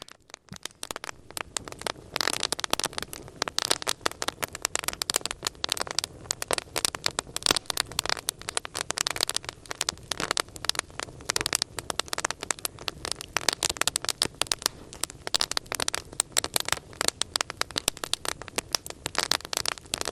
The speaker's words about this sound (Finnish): tiedätte kun nuotio humisee tai kaikuu ja sitten se rätinä, kun nuotio rätisee